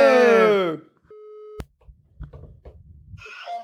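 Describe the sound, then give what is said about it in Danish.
A brief, steady electronic telephone ringing tone sounds once, then cuts off with a sharp click as the line picks up, followed by faint muffled noise and voices. “Jeg synes lige, jeg var nødt til at ringe til dig”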